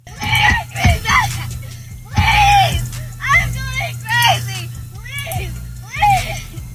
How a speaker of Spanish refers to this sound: escuchamos que está gritando desesperadamente … porque la cortó su novio